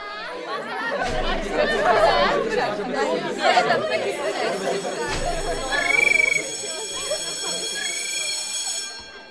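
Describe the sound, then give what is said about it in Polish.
Many overlapping voices chatter loudly in a busy school corridor, and partway through an electric bell starts ringing, a steady high metallic tone holding on beneath the crowd noise until the end. “Jeżeli mamy takie właśnie efekty korytarza i dzwonka, możemy bardzo ładnie zamaskować te cięcia.”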